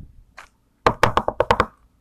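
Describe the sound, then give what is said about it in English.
A quick burst of about seven firm, fairly loud knocks on a hard surface in a fast, slightly uneven rhythm after a faint tap, with no talking. “Then someone knocked.”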